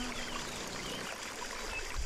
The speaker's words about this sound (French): À peine venais-je d'admettre la vérité que je sentis le massage de l'eau sur mon dos. J'ouvris doucement les yeux et me rendis compte que j'étais encore sous la cascade.